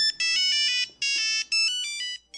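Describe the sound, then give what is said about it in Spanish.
An old mobile phone ringtone plays a quick, bright electronic melody of beeping tones in short bursts, loud and close, with no voices. “cuando tu teléfono sonaba así”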